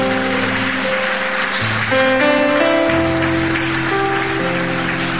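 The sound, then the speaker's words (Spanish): An audience applauding God claps steadily in a dense, loud wash of applause, while sustained keyboard or organ chords shift underneath throughout. “Dele fuerte el aplauso a Dios de los cielos.”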